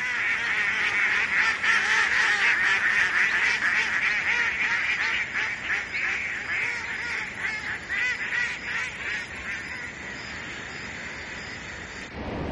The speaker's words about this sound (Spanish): Mira al cielo y se detiene. Una bandada de patos vuela en V.